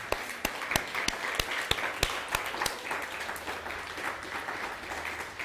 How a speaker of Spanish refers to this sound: Bueno, denle un fuerte aplauso al bendito sea.